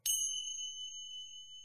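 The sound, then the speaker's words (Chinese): A single bright mobile phone notification ding with a sharp attack, its clear high tone ringing on and slowly fading over more than a second, with no voices. “倪清欢手机一响，然后接到了一个电话”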